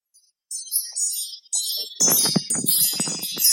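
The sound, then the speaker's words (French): A carillon (chime) is rung live: bright, high metallic chimes tinkle and ring in overlapping tones, with dull rustling and handling noise joining partway through as it is set down. “Voilà, donc ça c'est le carillon.”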